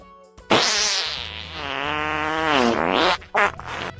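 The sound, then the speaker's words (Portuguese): A long, wet, sputtering diarrhea fart sound effect, loud, with a rippling bubbly texture that bends in pitch before ending in a couple of short spluttering bursts. “Peido diarreia.”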